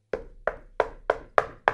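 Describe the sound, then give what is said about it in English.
Six hollow knocks on an enormous plastic tower container of Old Trapper beef jerky, evenly spaced, each a sharp thud with a brief resonant ring and no voices. “That sound you hear is me knocking on the enormous plastic tower of beef.”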